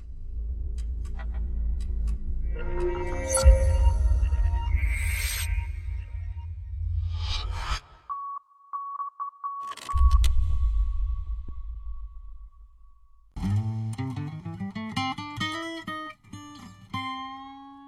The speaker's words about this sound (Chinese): 我们大家再对照一下图，听一下这个摩斯密码代表的意思，练一下你们的大脑吧。